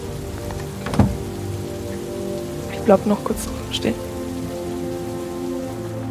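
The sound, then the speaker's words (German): Steady rain patters continuously on a hard surface, a dense even hiss broken by a few louder drips and knocks, while a person speaks briefly over it. “Du gehst rein, ziemlich nass vom Regen, stellst dich wieder zu dem Rest.”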